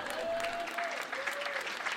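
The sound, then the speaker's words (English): A small crowd claps steadily and without much energy for about two seconds, a dense patter of hands, with a faint thin whistling tone drifting through it. “Yeah, you can clap tepidly for that.”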